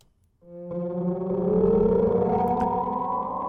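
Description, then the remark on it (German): A pop song plays after a brief silence, opening with a loud, sustained droning chord of layered tones that slowly glide upward in pitch, with no talking over it. “wir hören doch einfach den Song … von … und der geht im Fall so”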